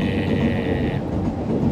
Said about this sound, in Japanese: すごいですね今電車の音が